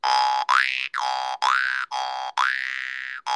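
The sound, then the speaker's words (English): Twangy mouth harp notes, played with the mouth and a finger, plucked again and again in a steady rhythm, each note's pitch bending and swooping like a boing. Fairly loud, with no voices. “Are you playing that with your, your mouth and your finger?”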